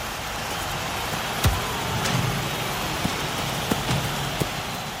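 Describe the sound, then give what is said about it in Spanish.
Steady rain hisses evenly throughout, with a handful of sharper drops striking a surface now and then. No voices, just the continuous wash of falling water. “Esa final contra Hungría se jugó bajo la lluvia y en un terreno que cada vez se fue poniendo más barroso.”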